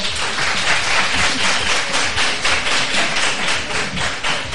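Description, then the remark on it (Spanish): A room full of people claps steadily for the presenters, a dense wash of many hands applauding at an even volume that carries on without pause and no one speaking. “Un aplauso para ellas, ¿no?”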